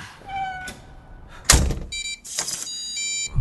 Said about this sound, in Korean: 왜, 왜 이래요? 에? 왜 문을 닫고 그래요?